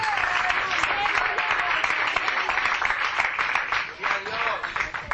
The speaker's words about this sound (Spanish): Dele un aplauso bien fuerte al Señor en esta tarde.